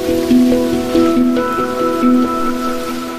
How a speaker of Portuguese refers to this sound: o hang pode ser um instrumento harmônico, melódico e de percussão